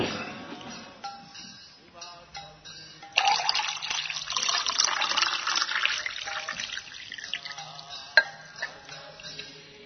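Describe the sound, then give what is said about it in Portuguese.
Water runs from a tap into a container in a steady gush for a few seconds as more water is fetched, preceded by faint clinking and followed by softer trickling. “Pegar mais água, Bima, antes que acaba.”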